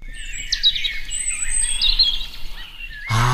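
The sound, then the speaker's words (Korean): A bird sings a bright, busy stream of chirps and trills, several voices overlapping, with no talking; near the end a low-pitched tonal sound cuts in abruptly. “새소리군요. 예쁜 새소리.”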